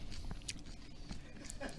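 Crisp crunching from someone chewing a brittle fried insect, a run of irregular bites and cracks over a couple of seconds with a quiet background.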